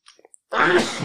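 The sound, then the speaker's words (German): A single muffled sneeze from a man into his T-shirt, preceded by a few small breathy catches. No one talks. “Er niest komplett in ah, sein T-Shirt.”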